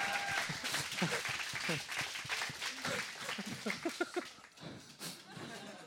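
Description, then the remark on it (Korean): A small group claps in a quick, irregular patter for several seconds, with voices and laughter over the applause before it tapers off toward the end. “야 우리 그 중국인을 위해서 박수 한번 쳐드리죠.”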